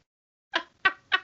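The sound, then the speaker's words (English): Three short, piercing shrieks from a frightened person burst out in quick succession, each sharp and loud with a bright, kettle-like squeal, and no talking around them. “It was just me sounding like a tea kettle of death.”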